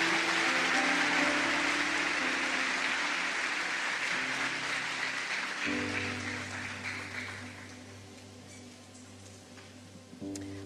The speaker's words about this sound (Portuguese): Aplauda Jesus e sente-se na presença dele.